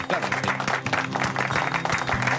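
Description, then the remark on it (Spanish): A crowd applauds steadily for a couple of seconds, a dense rattle of many hands clapping at once, with a faint tonal hum running underneath. “Un aplauso.”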